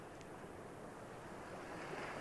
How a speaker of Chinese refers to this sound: 你现在有听到海浪的声音吗？请将你的注意力就轻轻的放在这个海浪的声音上面